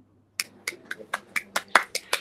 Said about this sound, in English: Okay okay got an applause applause and everything we have a studio audience today I love it